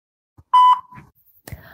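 A single loud, steady electronic beep of an answering machine, lasting about a quarter second, followed by faint handling noises and a brief click or thump.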